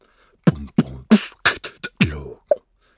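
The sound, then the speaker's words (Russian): A short human beatbox pattern: about eight punchy mouth-made drum hits in a quick rhythm, mixing deep kick-like thumps with hissy snare and hi-hat sounds, clear with no talking. “Это искусство, которое называется human beatbox. Это когда ты производишь ритм своим ртом.”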